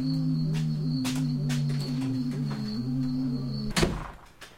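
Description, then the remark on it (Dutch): A door slams shut with one sharp, solid thud near the end, preceded by light knocks and clatter over a steady mechanical hum. “Doe, doe alsjeblieft de deur dicht, want...”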